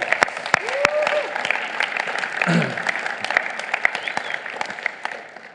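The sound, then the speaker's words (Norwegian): An audience at a Sunday evening service in Imekirka church breaks into sustained applause for the 153,000 kroner given to work in Mozambique. Dense, steady clapping fills the whole stretch, with sharp individual claps popping out, a few voices and a brief whoop mixed in, tapering slightly at the end. “Det kan dere klappe for.”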